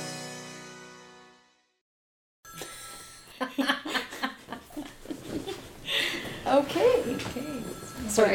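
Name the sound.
old telephone bell ringing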